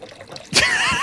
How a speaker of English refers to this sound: Tags is pouring his water.